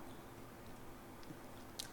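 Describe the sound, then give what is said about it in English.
Chewing salted pretzels right into a microphone, a steady mouthy grinding texture with a sharper crunch near the end, heard alone without talking. “Just that's why I'm going to be munching into the, the microphone for y'all.”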